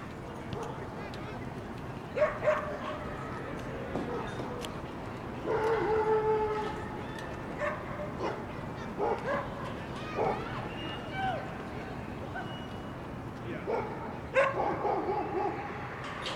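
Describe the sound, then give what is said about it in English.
Several dogs bark and yip at an off-leash dog park on Beverley Street, scattered barks coming in irregular bursts over steady background hubbub, with people talking faintly. “And on our way, we'll be passing the off leash dog park. So if you want to check out some dogs, it's a great time to do that.”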